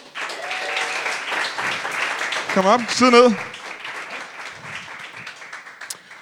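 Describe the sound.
A studio audience applauds steadily for several seconds as a guest, a journalist known from Danmarks Radio, arrives: a dense wash of clapping that swells briefly, while a man speaks a few words over it before the clapping fades.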